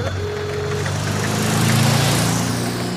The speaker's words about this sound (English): They are walking along the road when suddenly a magnificent motorcar drives past.